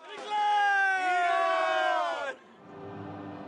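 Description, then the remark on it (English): A crowd roars and chants in unison outside a stadium, a loud sustained swell of many voices for about two seconds before dropping abruptly to a softer murmur of crowd noise. “Amid the noise outside the stadium,”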